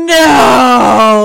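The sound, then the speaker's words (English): A person voices a loud, drawn-out groaning scream, mimicking the echoey death-scream growl of a monster bear opening its mouth: one sustained, strained wail lasting about a second, with a pitch that sags slightly toward the end. “But the scariest part is when it opens its mouth to growl.”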